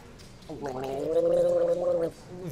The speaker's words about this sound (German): Hier, meine Milch zum Gurgeln.